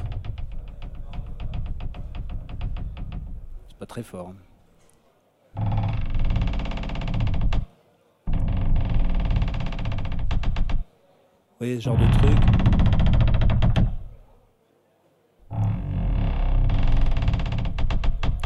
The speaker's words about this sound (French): ralenti de deux octaves ces grincements et, je me suis, passer dans une acoustique type cabine de bateau